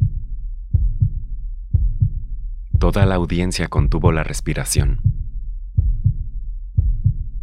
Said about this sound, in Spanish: Mi corazón comenzó a latir con fuerza.